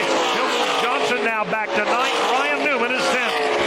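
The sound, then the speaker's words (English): Stock race cars roar continuously around an oval track, their engines rising and falling in pitch as they pass, as one car dives to the bottom of the track in turn one and slides past Jimmie Johnson's car. A commentator's voice talks over the loud, steady engine noise. “Dives deep down to the bottom of the racetrack into one, and he will slide past Jimmie Johnson to take that spot away.”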